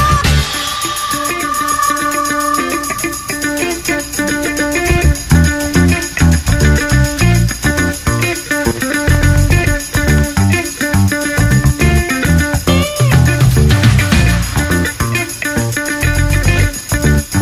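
A funky soul recording plays steadily with a driving beat, bass line and bright instrumental tones, loud throughout with no talking over it.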